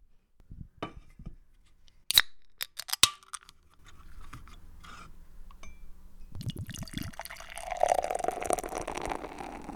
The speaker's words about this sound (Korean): 여러분 다 같이 술 한잔 하는 느낌으로 오랜만에 맥주 따르는 소리와 함께 맥주 마시면서 시작해 보도록 할게요.